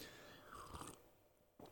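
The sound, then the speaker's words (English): A soft sip of a drink from a chalice: a brief wet slurp in the middle, then quiet, and a small mouth click near the end. Nobody speaks. “I think it's probably time for the earliest recorded chalice sip in the history of the show.”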